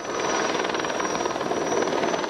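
firefighting aircraft flying overhead

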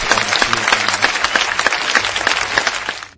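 applause

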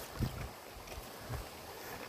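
small stream flowing

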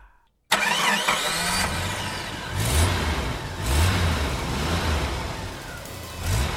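car engine accelerating

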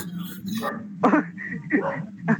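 dogs barking

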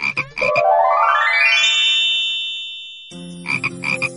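frog croaking

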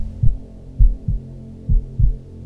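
heartbeat

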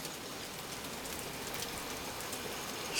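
rain falling

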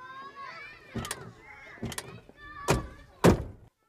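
getting into car

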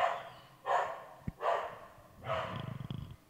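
dog barking

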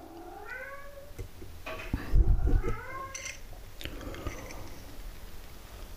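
cat meowing

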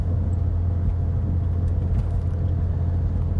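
car driving

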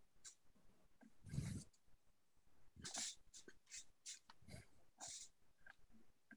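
dog whimpering

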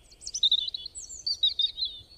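flock of birds chirping

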